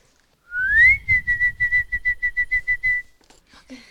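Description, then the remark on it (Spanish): A loud whistle rises in pitch, then breaks into a quick run of about a dozen short, even chirping pulses, a person whistling to call little birds. “Un sonido que hacía, me dijeron que sí mi abuelita la es que chiflaba a los pajaritos.”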